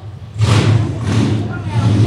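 A motorcycle engine roars past, its low rumbling drone swelling in suddenly with a broad whoosh and staying loud and steady for about two seconds.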